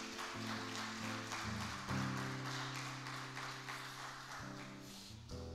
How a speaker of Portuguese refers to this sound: Nós declaramos que a glória é tua, que o louvor é teu e fazemos isso com uma salva de palmas ao teu nome. Aplauda Jesus.